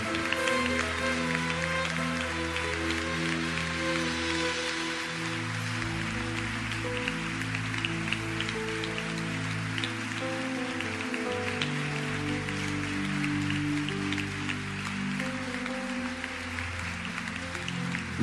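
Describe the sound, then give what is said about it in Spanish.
A crowd claps steadily and loudly for the whole stretch, a dense crackling wash of hands over sustained, shifting low musical tones that hold beneath it, applauding God and Jesus of Bethlehem at a worship service. “Apláudele más fuerte.”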